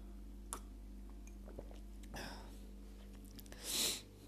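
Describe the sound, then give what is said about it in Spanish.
A single short slurping sip of a tequila margarita cocktail near the end, preceded by a few faint mouth clicks over a steady low hum, with no one talking. “Así que voy a poner un sorbo nomás por, ustedes.”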